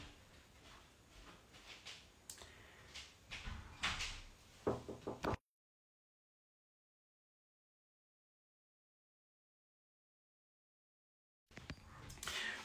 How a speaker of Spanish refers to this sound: me tocaron eh, la puerta, pero no pasa nada.